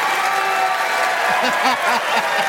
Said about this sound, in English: Yes, we clap for the correct answer.